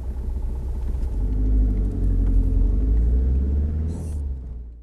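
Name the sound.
car engine rumbling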